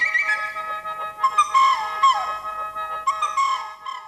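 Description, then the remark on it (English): A bright Chinese flute plays quick chirping trills and short sliding notes, imitating birdsong in a lively, fairly loud passage with no voices. “Some examples are like bird like chirps made by the Chinese flute”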